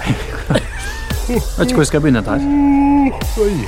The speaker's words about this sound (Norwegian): Nå gjesper jeg mest fordi at det er mandag.